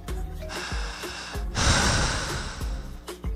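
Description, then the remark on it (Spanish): Deep, heavy breathing of a man standing up, like someone panting after exertion: short, sharp gasps on either side of one long, forceful, noisy exhale in the middle, with no talking. “profunda, como cansada, como, como si estuviera exhausto, agitado, después de correr, ¿no?”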